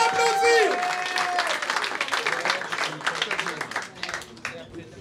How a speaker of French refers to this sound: On l'applaudit